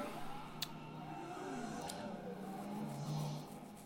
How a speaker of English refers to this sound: and there, I, I think was that the manure truck going by right there. I never noticed.